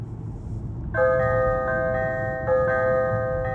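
Church bells played through a car's speakers while driving up to a church chime over a steady low rumble, two strong strikes about a second and a half apart, each leaving long, bright ringing tones. The bells are fairly loud, with no talking.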